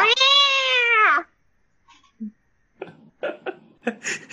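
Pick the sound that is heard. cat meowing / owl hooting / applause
cat meowing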